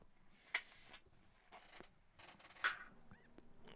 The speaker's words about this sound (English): Sorry, I'm prepping my water.